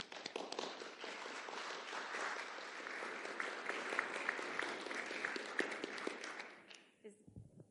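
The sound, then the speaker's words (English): An audience applauds steadily for about seven seconds to welcome a speaker, a dense wash of clapping with a few sharper claps standing out, then it fades quickly into quiet. “Let's give her a welcome.”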